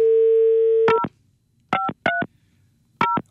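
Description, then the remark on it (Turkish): A steady dial tone cuts off as someone dials a phone call, and four short electronic keypad beeps follow at uneven intervals, each a clear dual-pitched touch-tone, fairly loud with no talking. “Abi ara demiş. Tamam arayayım.”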